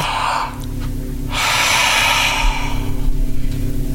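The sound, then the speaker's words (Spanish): Loud, forceful breathing of a person breathing hard with the diaphragm, chest and shoulders, deep airy inhales and exhales rushing in long waves over a low steady hum, no talking. “Siga respirando fuerte. Siempre fuerte seguridad.”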